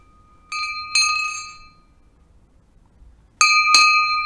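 A large cast livestock bell clangs in two pairs of bright, ringing strikes, with sustained metallic tones that decay between them; fairly loud, with a quiet gap in the middle.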